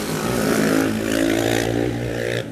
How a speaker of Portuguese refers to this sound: Gente, não sejam essas pessoas que andam de moto fazendo esse barulho todo sabe? É, incomoda todo mundo, né?